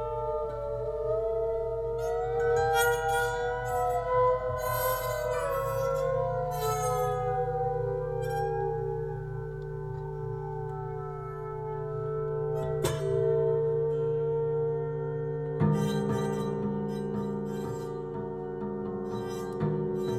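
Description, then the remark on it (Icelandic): Sustained, ringing glassy tones slowly bend and glide in pitch over a low drone, broken by a couple of sharp clinks later on; no one speaks. “ég á hérna eina litla upptöku frá, frá því síðan 20 ára og síðan til dæmi sem að er ágætt dæmi um þennan hljóðheim sem að mér finnst tala alveg sínum áli en, en tengir svona þess að tilfinningu fyrir gleri og heyra það hér”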